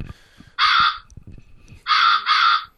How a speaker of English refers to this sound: Crows as well.